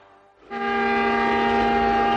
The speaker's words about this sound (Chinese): 这是从森林都市开往兰德市的火车。